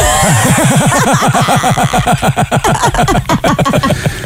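A motorcycle engine revving loudly, its pitch rising and falling in quick, repeated warbling pulses for a few seconds with no talking over it.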